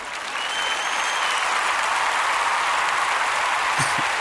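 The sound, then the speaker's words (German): Steady, dense pattering of rain and hail striking a window, a continuous hiss of countless tiny impacts with no voices, a few slightly sharper knocks near the end. “Hier hauen irgendwelche Regen-Hagelkörner gegens Fenster.”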